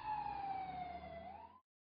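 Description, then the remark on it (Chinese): A police car siren wails as the car speeds off eastward, in one sustained tone that slowly dips and rises again, with a low engine rumble beneath, then cuts off abruptly after about a second and a half. “萧元二人上了警车，向东飞驰而去。”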